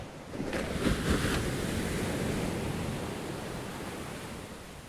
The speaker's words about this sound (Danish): Jeg sad og tænkte også på lyden af vand, men på bølger.